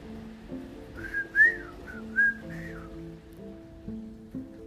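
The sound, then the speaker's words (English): A person whistles a short, lilting tune of several rising and falling notes, clear, over a soft sustained musical background with no talking. “And when they want to go anywhere, they just whistle like this.”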